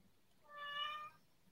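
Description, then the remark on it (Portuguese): A single cat meow, clear, lasting about half a second with a bright, tonal, slightly drawn-out quality, alone against quiet background noise. “Então, eu aqui tensa, influencio até os gatos.”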